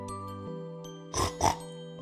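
animal, pig oinking and grunting

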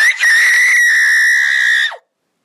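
human body sound, woman screaming loudly

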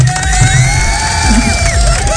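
crowd, audience applause and cheering

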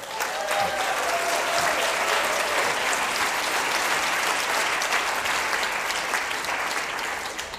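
crowd, audience applause

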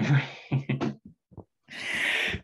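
animal, cat meowing loudly

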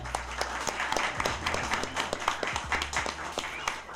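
crowd, audience applause and clapping

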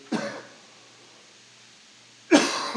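human body sound, cough

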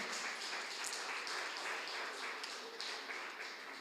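crowd, audience applause

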